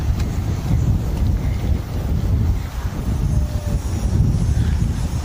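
Steady wind buffets the microphone outdoors, a dense low rumble that roars on without pause, with gusts swelling and easing over the few seconds and no voices heard.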